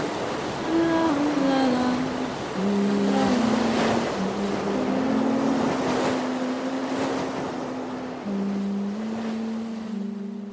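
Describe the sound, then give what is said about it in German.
Waves wash steadily onto the seashore in a continuous roar, with a few swelling surges, in sun and wind. A boat engine drones throughout, its pitch shifting slightly, and wind buffets the microphone. “Und für diese Folge haben wir wirklich einen tollen Ort am Meer gefunden. Zwischen Sonne, Wellen und leider auch dem Wind.”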